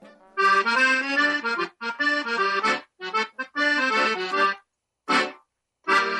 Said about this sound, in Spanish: Ese es el acordeón, mi instrumento.